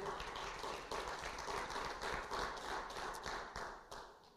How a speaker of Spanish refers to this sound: Dile un fuerte aplauso al Señor, aleluya.